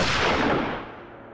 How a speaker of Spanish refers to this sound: Francisco acertó el disparo justo entre las cejas